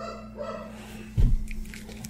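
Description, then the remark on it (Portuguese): A single muffled dog bark booms out partway through, low and heavy, from a dog on the first floor of the building, over a steady background hum. “Ah, tem um cachorro aqui na primeiro andar aqui.”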